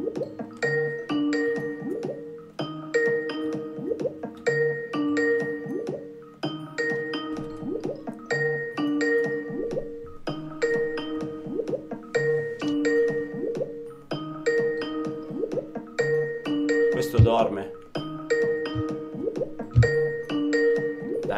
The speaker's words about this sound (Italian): Proviamo a fare una chiamata. Ditemi se sentite il telefono voi.